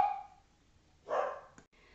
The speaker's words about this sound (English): Sorry about that. Uh, dogs barking, craziness going on for just a minute, so I had to pause.